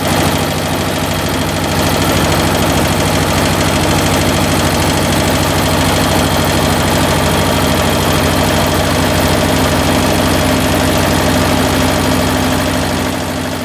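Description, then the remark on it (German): A tractor engine roars steadily at full throttle, loud, with a dense mechanical drone and strong low hum holding constant throughout, no voices present. “So, und jetzt hören wir nochmal, wie er unter Vollgas läuft.”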